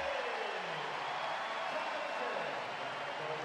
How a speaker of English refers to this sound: Iguodala will come in, and who will sit down? will be Curry getting a breather and listen to the crowd response for Stephen Curry.